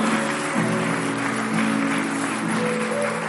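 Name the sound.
audience applauding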